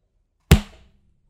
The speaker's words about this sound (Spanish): Listo. Espero que esta claqueta improvisada, segunda parte, haya quedado mejor que la anterior.